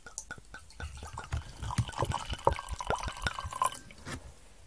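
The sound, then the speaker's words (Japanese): A refill of alcohol being poured into a glass, starting as a few separate drips and splashes and building into an uneven, gurgling trickle before tapering off. Fairly quiet, with no talking over it. “ちょっとお酒をおかわりするけどさ。”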